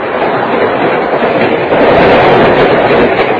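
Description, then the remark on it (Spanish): A train with first-class coaches rolls steadily along the rails, producing a loud, continuous rumbling roar with a dense hiss on top and no pauses. No one speaks. “Otillo Cadena, en uno de los coches de primera clase, viaja silencioso, solo.”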